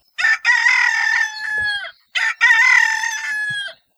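A domestic chicken rooster crows twice in close succession, each loud, drawn-out cock-a-doodle-doo rising then trailing off, with no other sounds around it.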